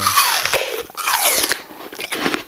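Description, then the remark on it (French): Someone bites into a crisp apple and chews, producing loud crunching with repeated sharp crackles over a couple of seconds. No one speaks. “Alors, vous avez reconnu euh, ce son de croquage de pomme.”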